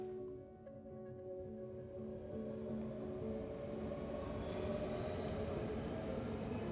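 A train rumbles steadily at a station, heavy low-end drone with sustained metallic tones and faint wheel squeal, continuous and fairly close, with no voices.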